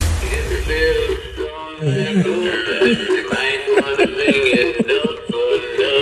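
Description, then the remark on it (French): A singing mounted bass novelty toy, a fish on a wooden plaque of the kind hung above doors, plays a tinny, electronic-sounding song, a cheerful synthetic voice over a bouncy rhythmic backing that runs steadily for several seconds. “Tu sais, les, truites en, sur un fond de bois qu'on accroche au-dessus des portes, mais celle-là, il est chantant”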